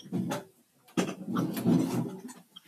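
A door is pushed shut: a scraping, rubbing sweep of wood followed by a sharp knock as it meets the frame, then more brief shuffling and creaking.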